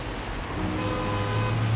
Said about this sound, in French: Je vois plein de bouchons. Ces fils, ce n'est pas très beau. J'entends tant de klaxons.